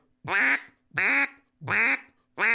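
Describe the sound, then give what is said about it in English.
Four loud, evenly spaced duck quacks, each a nasal, harmonic-rich honk about half a second long, blown on a hand-cupped duck call, with the hand moved to change the quack, and short silences between. “you're getting you're getting a different duck by moving your hand.”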